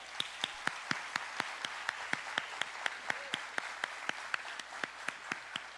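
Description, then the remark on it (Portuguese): A church audience applauds the Lord, clapping together in a steady, quick rhythm, sharp unified beats over a continuous wash of crowd applause, sustained for several seconds with no one talking. “você pode aplaudir ao Senhor?”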